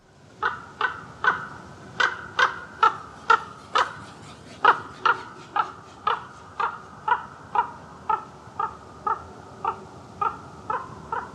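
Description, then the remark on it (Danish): A common raven calls over and over, roughly twenty harsh, croaking notes in a steady rhythm, clear against a quiet background with no talking. “Lad os lige høre, hvordan ravnen siger. Yes, ravnen.”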